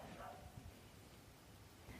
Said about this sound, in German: Ja, passenderweise bellt hier auch gerade ein Hund. Ich weiß nicht, ob ihr das hört.